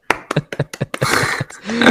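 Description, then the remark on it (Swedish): Hand clapping: a quick run of sharp, separate claps that blur into denser, steady applause, fairly loud, with a brief voice sound creeping in near the end. “exakt, jag, vet jag ska ge en applåd till er också här.”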